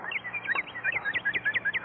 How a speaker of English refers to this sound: there you are, a cardinal.